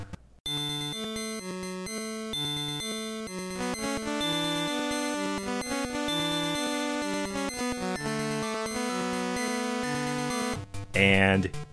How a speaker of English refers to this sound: Okay, here's how it sounds with the first seven instruments, but not the thunder drum.